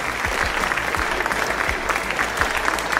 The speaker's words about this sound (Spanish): y para ello contamos con tres protagonistas de este famosísimo enredo. Un fuerte aplauso, por favor, para los representantes del Barcelona, del Real Madrid y del River Plate.